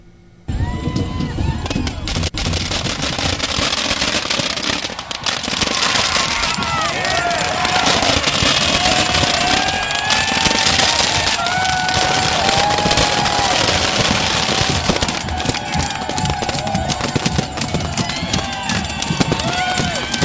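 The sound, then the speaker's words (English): Dense, loud fireworks crackle and pop continuously for about twenty seconds as a giant effigy is lit, with a crowd of about 10,000 people shouting and cheering underneath. “Uh, it sounded very nice, too. Something like this. Listen to it get lit.”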